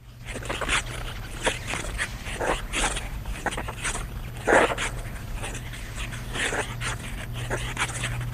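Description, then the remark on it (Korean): Kim Yuna's figure skate blades carve the ice in repeated hissing, scraping strokes at an uneven rhythm as she spins and jumps, practicing alone without music, with one sharper, louder scrape midway, over a steady low hum. No one speaks. “한 피겨 스케이팅 선수가 얼음판 위에서 빙판을 가르며 돌고 뛰고 혼자 계속 연습을 하고 있어요.”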